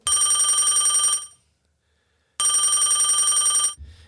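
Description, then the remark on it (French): A phone ringtone for an incoming FaceTime call plays in two loud bursts of bright, buzzy, harmonic tones, each about a second long, separated by a silent gap, with no talking. “Ben il y, a, un appel FaceTime là, sur mon téléphone.”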